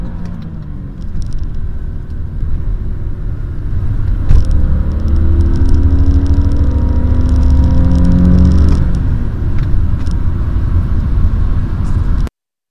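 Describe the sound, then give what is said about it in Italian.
An Alfa Romeo 2005 petrol V6 engine with 24 valves accelerates hard, its growl rising in pitch through several gears as the car pulls away, loud with a steady low rumble underneath and no talking. “Ecco, avete ascoltato l'accelerazione del motore Alfa Romeo 2005, 6 cilindri a V, 24 brucia, valvole.”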